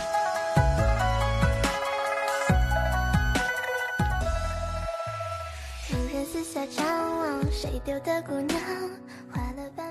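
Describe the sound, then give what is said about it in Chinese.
A phone rings with an incoming call from a girlfriend, a loud, busy melodic ringtone, a bright synthesized tune of shifting notes and chords playing continuously, with no one speaking. “郁闷的时候，女朋友来电话了”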